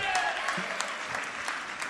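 Audience applause: a dense, steady patter of many hands clapping for the full two seconds, bright and fairly loud, with no voices standing out.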